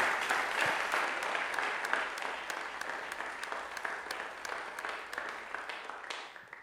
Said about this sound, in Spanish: así que vamos a darle un fuerte aplauso de bienvenida.